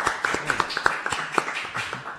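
A short burst of applause from a small group, with quick, irregular handclaps overlapping into a steady patter of moderate loudness and no voices.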